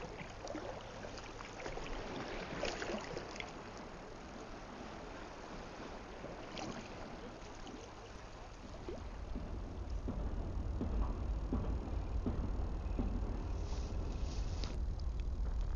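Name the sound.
sea waves lapping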